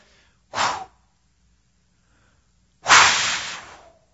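Two breathy whooshes, a voice imitating a wolf blowing down a house of sticks: a short puff, a pause, then a longer, louder gust that slowly tapers away. No talking.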